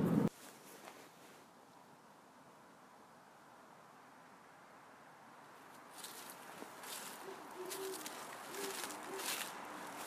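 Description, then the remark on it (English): Faint owl hoots, several short low calls repeating in the later half, over a steady hiss of outdoor night ambience with light rustling. “So the end of this uh, episode or this little bit will uh, include some owls hooting for those of you that may not get a chance to ever hear that.”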